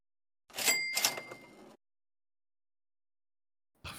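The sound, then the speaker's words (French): A cash register sound effect: a mechanical clatter and drawer rattle topped by a bright ringing bell, lasting about a second, then silence before another sound starts at the very end. “La caisse enregistreuse a été ressortie euh, littéralement euh, de la poussière”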